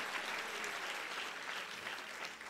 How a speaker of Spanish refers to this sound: Si ese aplauso es para Él, dele. Dele mejor el aplauso al Señor.